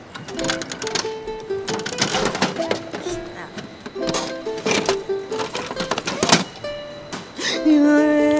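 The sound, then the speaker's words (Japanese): Loud ratcheting clicks of a capsule toy (gachapon) vending machine crank being turned in several bursts to get a food-themed capsule toy, with a faint steady tone lingering in the background and a brief rattle near the end. “ということで早速やってみたいと思います。カモンガチャガチャ来い”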